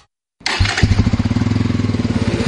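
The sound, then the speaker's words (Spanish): After a moment of silence, a motorcycle engine fires up and runs with a loud, steady, rapid throbbing rhythm and a deep, rumbling low end. No one speaks. “estrena una Dominar una Pulsar, una Avenger o tu Bayash favorita y regresa con todo.”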